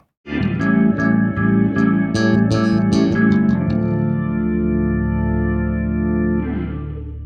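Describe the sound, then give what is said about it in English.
An organ glissando, played by sweeping a hand up and down the keyboard at the end of a song, runs through rapid clicking notes, then settles into a loud, sustained chord that swells briefly near the end. No one speaks. “I use the same effect right at the end of the song.”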